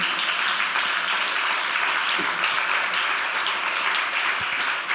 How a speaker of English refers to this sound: If you're here, you're sitting in a miracle. Clap your hands. this is a miracle.